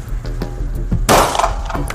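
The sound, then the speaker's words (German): A single loud, sharp gunshot from a firearm fired at a shooting range cracks out midway, trailing off in a brief ringing tail over a steady low rumble, with a few faint clicks before it. “Auferkanntes Ziel, neun Schuss, Feuer frei.”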